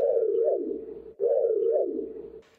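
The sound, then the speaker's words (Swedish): A voice imitates the front scanner sweep of a TV car that can talk and think, humming two smooth back-and-forth whooshing tones in steady succession, fairly loud, with no other sounds around it. “Knight Rider har en bil som kan prata och tänka och den har en, en scanner där fram som låter så här”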